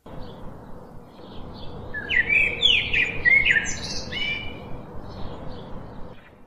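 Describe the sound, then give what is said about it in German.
Outdoor flower meadow ambience with a steady soft background hiss, and a burst of bright, high chirping birdsong in the middle, a few quick trilling calls that fade back into the ambient wash. “Ja, da sind wir auf der schönen Blumenwiese und lass uns mal loslaufen.”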